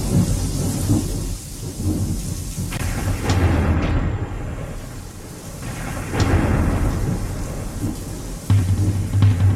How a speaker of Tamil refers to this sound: so இந்த மழை சவுண்டோட இந்த மழை சவுண்டோட அப்படியே அந்த மழை சவுண்டோட அந்த பாட்டை ஆரம்பிப்போம் இந்த மழை சவுண்ட்லேருந்து